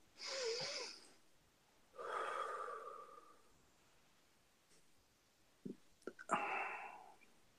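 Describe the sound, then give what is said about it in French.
A slow, deep breath in and then out during a meditation, each a soft airy rush lasting a second or more, followed by a few faint clicks and a shorter breathy exhale. No one speaks. “Une respiration.”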